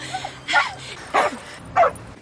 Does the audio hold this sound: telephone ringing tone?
no